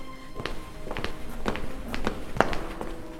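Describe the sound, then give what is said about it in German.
Quick running footsteps of three people echo along a long, hard corridor, a steady rhythm of roughly six or seven strikes with reverberant tails and a faint background hum. “Die drei laufen durch den langen Gang, wo auch die Köchin durchgegangen ist.”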